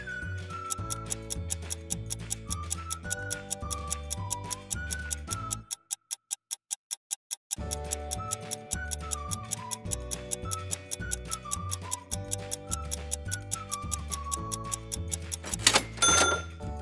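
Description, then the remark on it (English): A 15-second countdown clock for answering a puzzle ticks steadily and quickly over upbeat background music. The music drops out briefly midway so the ticks sound alone, then a brighter accent near the end. “Your 15 seconds on the clock start now.”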